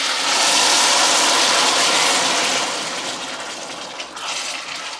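Diced tomatoes sizzle in a hot pan with a loud, steady, crackling hiss that eases slightly partway through and carries on without any talking.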